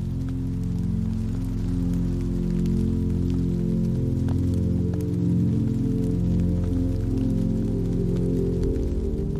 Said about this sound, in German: Die Menschen um dich herum beginnen, ihre Regenschirme zu öffnen. Aber du entscheidest dich bewusst, im Sommerregen zu bleiben.